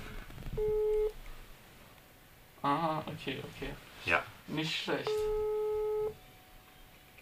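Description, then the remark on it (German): A telephone ringing tone sounds twice while someone places a call, each a steady, fairly loud tone lasting about a second with a long gap between, while people talk briefly in the pause. “Ich rufe jemanden an.”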